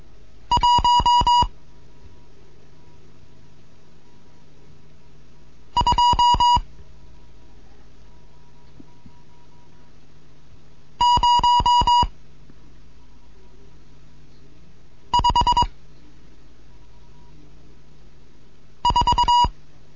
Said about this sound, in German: hier ist Degat 1 Kilo November mit einem Morseunterricht, neunte Lektion. Ich gebe jetzt Zahlen.